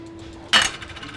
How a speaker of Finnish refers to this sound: Aivan kuten tekee Barcelonan ramplalla seisova roomalainen pronssipatsas, joka heilauttaa kättään, kun maassa olevaan kuppiin kilahtaa kolikko.